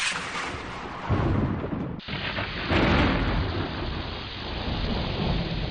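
A thunder sound effect with heavy rain: deep rumbling swells over a steady downpour, with a brief cut and then another loud roll of thunder, loud throughout.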